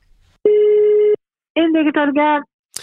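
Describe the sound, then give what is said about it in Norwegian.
A single steady telephone ringback tone of a call from Oslo municipality to Drammen municipality sounds for under a second, followed by a brief pause and then a voice answering, as if the call has just been picked up. “Ringer fra Oslo kommune.”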